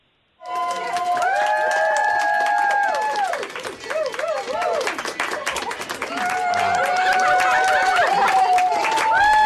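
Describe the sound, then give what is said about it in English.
Healthcare workers in a hospital applaud steadily and loudly as a COVID-19 patient leaves the ICU, many hands clapping in a dense patter, with raised voices cheering and whooping over it throughout. “But this is uh, them leaving the ICU and getting applause uh, uh, applause from all the healthcare workers in the hospital.”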